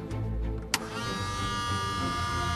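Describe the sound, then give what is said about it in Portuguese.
A switch clicks, then an aircraft's electric fuel pump starts up, injecting fuel into the system before engine start, with a steady buzzing whine that holds continuously over a low background hum. “Agora, então, o que é que eu vou precisar? De injetar combustível no sistema.”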